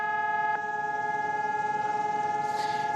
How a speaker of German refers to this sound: In Israel wird am heutigen Gedenktag Yom HaShoah an die Opfer des Holocaust erinnert und an den jüdischen Widerstand gegen die Nazis und ihre Helfershelfer. Landesweit heulten am Vormittag die Sirenen.